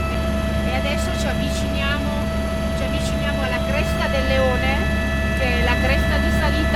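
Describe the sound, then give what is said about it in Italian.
A steady, loud helicopter engine and rotor drone throughout, with a constant mechanical whine, while a man talks over it, during a flight by the Cervino, viewing its west side. “Dall'elicottero si vede il lato invisibile del cervino, il lato ovest.”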